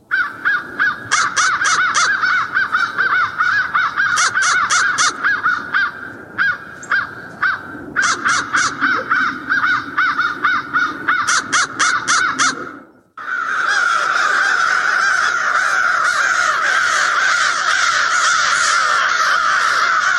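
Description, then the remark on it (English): Loud crows give repeated harsh caws and throaty rattling calls in bursts, then, after a brief pause, break into a sustained, continuous high-pitched screaming chorus, a call made when squabbling with other crows. “Crows also make a throaty rattle call that often sounds like they are trying to talk.”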